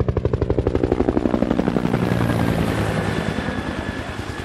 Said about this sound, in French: Donc ils ont appelé un hélicoptère de gendarmerie.